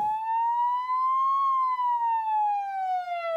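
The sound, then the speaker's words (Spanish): An ambulance siren sound effect wails loudly, its steady tone climbing slowly and then sliding back down in one long sweep, with no voices over it. “La ambulancia.”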